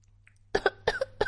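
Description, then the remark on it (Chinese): A child coughs about five times in quick, high-pitched bursts: two short pairs and then a single cough, fairly loud with brief pauses between, and no talking. “妈妈，我咳嗽了好几声，是不是生病了？”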